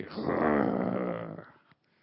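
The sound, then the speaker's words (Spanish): A person growls like a tiger, one rough, drawn-out snarl held for over a second, loud, then trailing off into near silence. “Oigan, ¿cuánto de nosotros de repente no nos pasa algo y de repente sale así que el tigre y”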